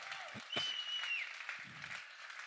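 Steady applause from an audience, given once more in tribute to two people: a dense crackle of many hands clapping continuously, with a brief whistle-like tone rising above it early on and a few low thumps.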